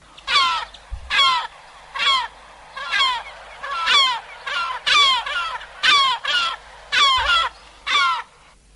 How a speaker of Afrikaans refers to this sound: Kom ons luister eers gou na sy mew wat ek vermoed die kelpmew is of hy noem dit swartrug en hy klink so.